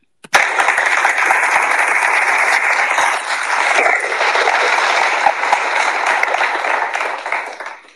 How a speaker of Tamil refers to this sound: very good very good very good உங்களுக்காக நான் கைத்தட்டுறேன்